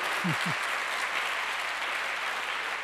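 A church audience applauds the Lord in a steady, dense wash of clapping that stays loud throughout, with a couple of brief low tonal blips near the start.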